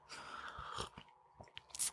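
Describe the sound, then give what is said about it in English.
A quiet sip of tea: a soft slurp followed by a few small wet mouth clicks and a faint swallow, with no one talking. “So now that announcement time is over, I'm going to take a sip of tea, take a sip of whatever you have,”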